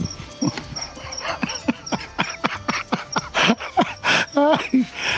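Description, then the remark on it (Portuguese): A duck mimics a door slamming with a rapid series of sharp, thudding bangs, then gives a strained, voice-like call imitating the human words "You bloody fool", fairly loud. “Ele imita um barulho de porta fechando, um bam desse aí, uma porta batendo, e, e ele fala algo parecido com You Bloody Fool.”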